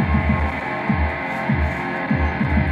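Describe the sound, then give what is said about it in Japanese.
A deep, throbbing synthesizer bass tone pulses in a steady rhythm of about two per second, its low swells repeatedly sweeping, with a constant electronic hum underneath and no voices, as the sound is modulated on a computer running Live software while a knob is turned. “パソコンでちょっと音のを変調してますね”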